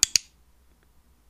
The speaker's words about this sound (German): Das war der iClick und ich zeige ihn dir nochmal im Vergleich zum Boxklick.